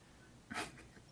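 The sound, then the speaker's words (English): A single short sneeze bursts out, a quick breathy explosion of noise that fades fast, with no talking around it. “Bless you.”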